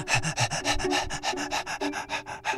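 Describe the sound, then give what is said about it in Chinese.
A hunting dog pants rapidly with its mouth open in a steady, breathy rhythm, about a dozen quick huffs in under three seconds, with a faint whine-like tone running underneath and no talking. “垂头丧气的猎犬跑回来了，而且猎犬的嘴里没有叼着野兔，反倒是张开嘴巴，气喘吁吁的。”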